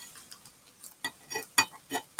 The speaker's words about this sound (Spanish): Lo he metido cuatro minutos al microondas, está caliente, lógicamente. Ahora con una tijera y con mucho cuidado, lo que voy a hacer es cortar el plástico